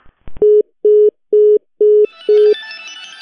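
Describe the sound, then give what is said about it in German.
A click on the line, then five short, evenly spaced beeps of a steady low telephone tone, the rapid pattern of a line after the call is cut off, fading into hiss. “Ja, da hat er dann aber ganz abrupt das Telefonat abgebrochen.”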